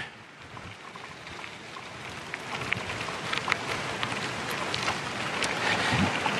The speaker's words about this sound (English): Perhaps you can hear our bike tires as we ride our bikes along an old railroad bridge and down the bed of an old railroad.